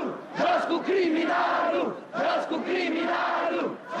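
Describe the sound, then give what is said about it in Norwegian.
An angry crowd in Romania roars and shouts against Ceaușescu during the revolution, in two long, loud surges, voices rising and falling in massed waves with a brief dip between them. “Og til slutt hørte ikke folket på ham lenger, og slapp løs sitt undertrykte sinne.”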